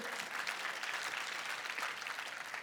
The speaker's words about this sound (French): J'aime l'Église qui applaudit simplement à la parole de Dieu. Ah, merci.